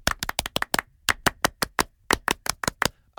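Rhythmic hand clapping in a patterned French-style applause, counted in with "un, deux, trois": a quick burst of sharp claps, a brief pause, then steadier bursts of crisp claps in a repeating beat, with no talking.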